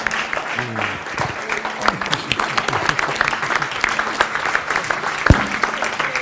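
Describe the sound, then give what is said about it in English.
A church audience gives sustained standing applause for two pastors. Dense, rapid clapping fills the whole stretch at a steady loud level, with a few murmuring voices and a brief cheer mixed in. “Please, let's, let's, can we give them a, a standing um, th- applause, please?”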